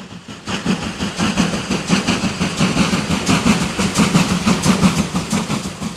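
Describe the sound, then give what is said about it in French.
A train carrying Adolf Hitler near Munich in March 1932 rumbles steadily along the rails, its wheels clacking in a rhythmic pattern over a low, continuous roar that stays loud throughout, with no voices. “ce jour de mars 1932, l'homme se trouve dans un train lorsque des individus dirigent leur tir vers le wagon censé abriter la cible.”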